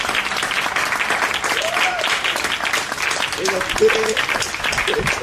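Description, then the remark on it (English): A crowd bursts into sustained applause, dense hand clapping for several seconds, with scattered voices calling out beneath it. “If you agree with me, can I get a, an amen or a hand clap?”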